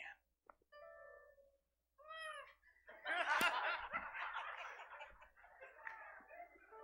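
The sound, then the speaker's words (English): A person imitates a chicken with a few short, warbling squawks, followed by a burst of loud laughter and chatter from a crowd. “Can anybody else make a chicken noise over here?”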